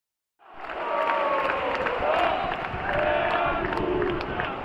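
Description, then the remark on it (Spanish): A large crowd at the Estadio Enrique Roca football stadium roars continuously in the 89th minute, near the end of the match, a dense wash of many voices with rising and falling chants and shouts, steady and loud throughout after a brief silent start. “He dejado un poquito el sonido ambiente, no he llegado a tiempo, la verdad, pero, pero bueno, es digno de ponerlo.”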